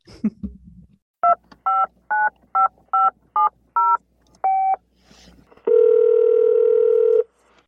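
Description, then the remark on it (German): Seven short touch-tone beeps are dialed in quick succession to place a telephone call, followed by a longer steady ringback tone, with no talking over it. “Ich würde sagen, dann ruf mir einfach mal an. Wir rufen mal an.”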